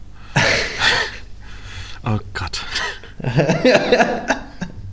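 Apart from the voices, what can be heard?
sneeze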